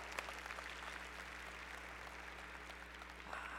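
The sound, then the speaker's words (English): Soft, steady audience applause fills the whole stretch, a dense patter of many hands clapping at once, fairly faint, with a low electrical hum underneath and no one speaking. “Yeah, let's clap again.”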